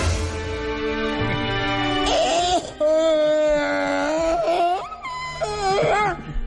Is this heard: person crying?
yes